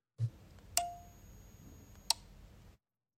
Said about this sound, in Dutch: Die het geluid van het klikkende relay herkende.